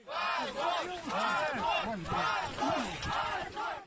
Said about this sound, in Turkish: Moskova'da halk Putin yönetimine seslerini duyurmak için günlerdir toplanıyor. Savaşı durdurun çığlıkları Kremlin'e ulaşmıyor.